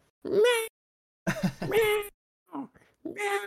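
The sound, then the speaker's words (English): A person's voice imitates a cat meowing to be fed, several drawn-out, nasal meows in a row with short pauses between them, fairly loud. “constant, just like constantly meowing at you.”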